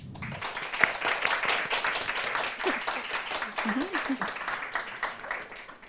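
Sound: audience applause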